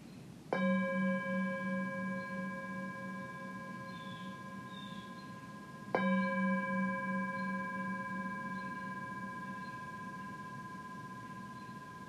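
A meditation bell is struck twice, about five seconds apart, each strike a clear, resonant tone with layered overtones that hums on and fades slowly. No one speaks.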